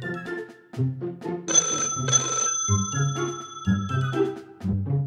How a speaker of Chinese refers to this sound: 就听到帐篷里传出来的电话铃声。